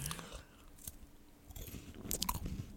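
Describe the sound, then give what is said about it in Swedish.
Wet, loud smacking and chewing, irregular crunchy bites and lip smacks with a low, murmuring moan running underneath. “Om någon äter och så här smaskar men också säger, eller typ stönar samtidigt.”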